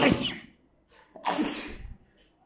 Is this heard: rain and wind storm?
no